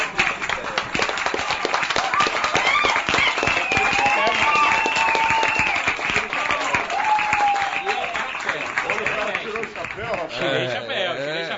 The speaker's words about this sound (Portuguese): É, para um cabra como esse, merece ser aplaudido de pé.